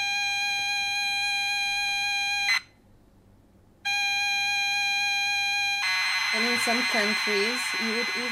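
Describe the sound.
A harsh, steady electronic tone blares loudly from the mini speaker of a Romanian-built Chip 03 computer as it loads a game, cuts out for about a second, returns, then turns into a rough, buzzing stream of screeching data noise.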